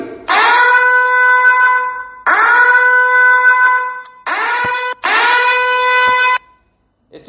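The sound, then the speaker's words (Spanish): An air raid warning siren sounds in four loud, steady blasts, each rising quickly to a constant harsh tone and stopping abruptly after short pauses, with no voices present. “tal vez le puede estar sonando a las personas en Ucrania.”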